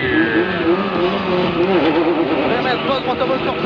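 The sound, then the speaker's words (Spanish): A rally car, number 334 (FIA 128, model 73), in the 2006 Rally Argentina, its engine roaring steadily and loudly, pitch shifting slightly as it races along, while a man's voice talks over the continuous mechanical drone. “Vamos a seguir, vamos a seguir al coche número 334, FIA 128, modelo 73.”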